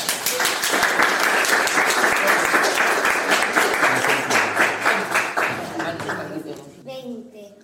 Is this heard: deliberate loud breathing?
no